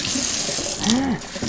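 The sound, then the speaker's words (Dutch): A kitchen tap runs steadily in a bright, hissing stream, with brief squeaky rubbing of an apple being rinsed under the flow. “Maar ik was hem nu en ik kan hem sowieso vandaag eh, opeten.”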